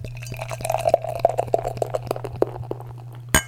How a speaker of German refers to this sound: die Hörer nämlich immer sagen, ihr spielt doch dieses Einschenken ein als, als Soundtrack oder so. Nein, ist immer live. Ja, ich kann es bestätigen. Es klappt mal besser und mal schlechter.